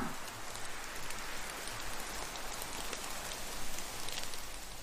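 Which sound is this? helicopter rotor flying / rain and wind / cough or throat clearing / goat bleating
rain and wind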